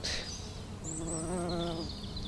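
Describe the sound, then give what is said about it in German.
A bumblebee buzzes outdoors among a stand of hollow-rooted corydalis plants, its low droning hum rising and wavering steadily, with faint high outdoor sounds in the background and no one talking. “wird immer abgelenkt durch Hummeli”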